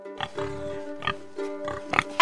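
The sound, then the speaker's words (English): A big, plump pig grunts and oinks in a quick series of short, snorting bursts, ending with a sharper squeal, over a faint steady background hum. “He rubbed the little blue pebble three times and turned himself into a big, plump pig.”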